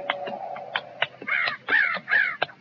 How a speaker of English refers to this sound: You hear that? Could mean Indians made a camp. Those crows ain't flying. Figure they're sitting in the trees waiting for a handout. Uh, unless they're feeding on carrion.